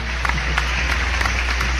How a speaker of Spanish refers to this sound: Un aplauso, oigan.